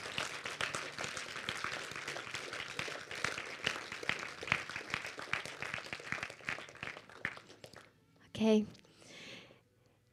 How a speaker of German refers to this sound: Und lasst uns mal einfach allen, die so mutig waren, einfach einen herzlichen Applaus geben dafür, dass sie diese Entscheidung getroffen haben.